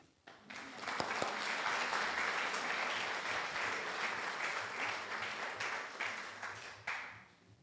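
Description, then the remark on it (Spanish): A crowd bursts into sustained applause for an actor, dense overlapping clapping that rises quickly and holds steady for several seconds before tapering off, with faint voices mixed in. “Un aplauso al actor.”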